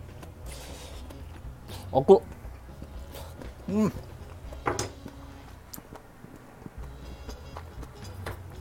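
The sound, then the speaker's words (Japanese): Someone eats a stir-fry of pork belly and bean sprouts with garlic soy sauce, with soft crunchy chewing and small mouth clicks, plus a few brief murmurs of approval between bites. “はい、しっかり盛り付け終わりましたんでね、えー、豚バラともやしのにんにく醤油炒め、ちょっと、ちょっと味見してみましょうか。”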